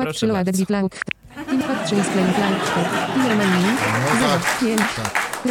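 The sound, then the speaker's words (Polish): A crowd-laughter sound effect played from a sound pad: a burst of crowd laughter with sharp, rhythmic voiced cackles, then a dense, loud wash of many voices laughing and clapping that continues steadily to the end. “Ale dobrze, to słuchaj, z drugiej strony zaraz cię wyśmieją.”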